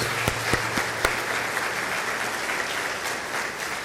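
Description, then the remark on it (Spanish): Audience applause for the children present: a steady wash of many hands clapping, dense and even throughout, with a few sharper individual claps standing out near the start. “Le damos un fuerte aplauso con gran alegría a todos nuestros chicos que están entre nosotros.”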